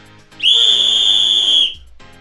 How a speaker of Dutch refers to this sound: Ik pak even mijn fluit erbij. Zo hard dat Arno het op uh, Tenerife kan horen.